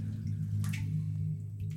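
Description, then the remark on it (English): Water runs steadily into a filling bathtub, nearly full, as a five-year-old child splashes playfully in it: a low, even rumble with a brief splashy burst partway through, with no voices. “I shout through the bathroom, from which I can still hear the sounds of playful splashing.”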